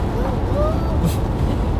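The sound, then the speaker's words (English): Steady low rumble of road noise inside a car driving on I-95 from the New Haven area toward Middletown, Rhode Island, constant and fairly loud throughout, with a faint brief hiss partway through and no clear talking. “So I got in the car with me,”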